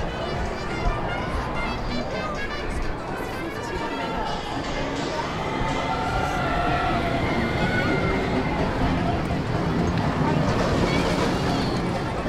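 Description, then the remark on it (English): Screams from roller coaster riders on a boardwalk rise and fall over a steady wash of outdoor wind and crowd noise, swelling louder toward the end. “That's what you hear. You hear screaming as you're walking down the boardwalk.”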